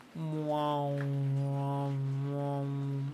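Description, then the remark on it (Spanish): A voice imitates a didgeridoo, the Australian instrument used by the natives, with one steady, buzzing low drone held for about three seconds, its tone wavering and warbling as the mouth shape shifts. It is fairly loud. “Ese, ese instrumento ah, australiano que utilizan los nativos, que suena así como que un...”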